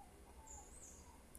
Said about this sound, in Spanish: Espero que les haya gustado la ambientación que nos dan nuestros queridos pichuelos, nuestros queridos aves.